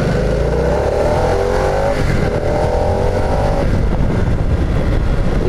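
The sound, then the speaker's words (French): A motorcycle engine revs up hard in sport mode while being ridden, its pitch climbing through rising harmonics, dipping briefly, then climbing again over a steady wash of wind and road noise. “parmi tous ces modes moteurs, on a le mode sport avec lequel je roule actuellement.”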